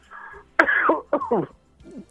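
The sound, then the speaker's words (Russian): A male caller on a phone line coughs several times in quick succession, harsh throat-clearing bursts that are loud, with brief pauses between them and no speech. “что вы не кашляете”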